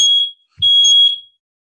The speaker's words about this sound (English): So, funny story, I just said it was going to set off the smoke alarm and it did, and it never has done that before.